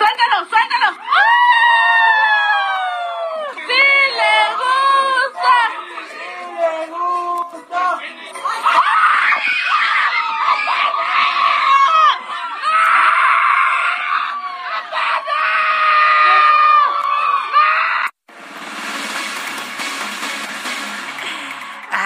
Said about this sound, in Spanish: muy contento dejó ir el globo, lo dejó en libertad ante los gritos desesperados de todos los presentes.